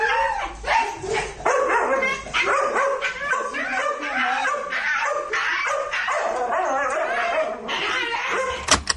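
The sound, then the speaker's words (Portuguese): A female dog screams and shrieks in rapid, high-pitched bursts that sound strikingly like a monkey, loud, with barely a pause throughout and no one talking. “Mas ela, grita. Lu, ela grita, ela berra. Ela não late, ela berra.”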